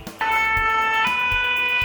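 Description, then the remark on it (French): A fire station alert siren, sounding automatically when the firefighters are alerted to a problem, blares on suddenly and holds a loud, steady, piercing tone, with faint low thumps pulsing regularly underneath and no voices. “Quand les pompiers sont avertis d'un problème, la sirène sonne automatiquement.”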